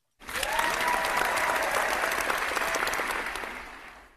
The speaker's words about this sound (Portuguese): A salva de palmas